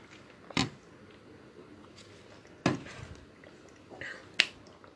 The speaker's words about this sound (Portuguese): Pera aí agora que eu vou tomar aquela minha água